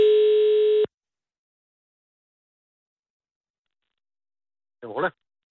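A single steady telephone ringing tone sounds for under a second as Radio 24 in Copenhagen places a call to someone in Stevns, Denmark, followed by several seconds of silence before a brief voice answers at the end.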